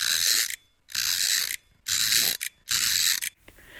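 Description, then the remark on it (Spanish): A mechanical ratcheting clatter from the clockwork mechanism of a mechanical automaton, four dense bursts of rapid clicks with short pauses between, fairly loud, no voices. “Autómatas mecánicos, muñecos de artificio que se mueven sin causa aparente, hablan, tocan instrumentos musicales y sus movimientos vitales de una vida sin vida pueden causarnos una sensación siniestra que nos hiela los huesos.”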